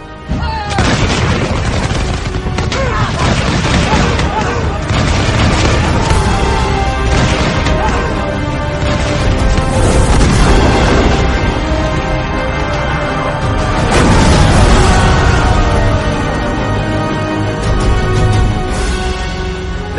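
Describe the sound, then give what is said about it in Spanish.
Dense, loud naval battle din between galleys, with arquebusiers firing at close range on Turks trying to board: booming bursts and sharp cracks of gunfire erupting repeatedly over a constant roaring chaos of combat for the whole stretch. “Los nuestros se alzaron con presteza, y cuando vimos a los primeros turcos intentando asaltar nuestro navío, los arcabuceros se alzaron disparando tan cerca que por cada tiro caía un turco.”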